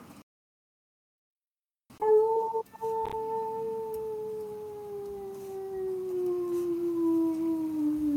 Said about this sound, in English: start walking towards the sound of that howling.